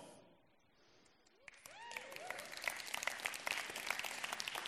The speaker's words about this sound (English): Now, I don't know why you're clapping, but I know why I'm clapping because I just got a pay raise.